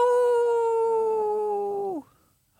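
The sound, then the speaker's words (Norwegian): A wolf's single long howl holds one steady, mid-pitched tone for about two seconds, then slides sharply downward and fades out. A brief faint click follows. “Og så er du kanskje enig at hvis du hadde vært ute i skogen helt alene, kveldstid, skulle kanskje telte, og høre rundt deg Au!”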